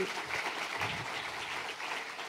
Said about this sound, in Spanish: Eso, un aplauso al Señor. Eso es.